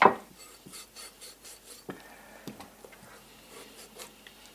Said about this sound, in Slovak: ja z pravidla tú hus e, trošku po povrchu narežem. Treba dať pozor, aby sme nezarezali zbytočne do mesa.